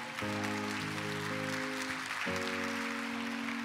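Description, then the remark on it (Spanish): A church audience applauds Jesus Christ, clapping steadily throughout, a dense, even wash of applause, while sustained organ-like keyboard chords hold underneath and shift to new harmonies a couple of times. “Vamos a darle un fuerte aplauso a Jesucristo.”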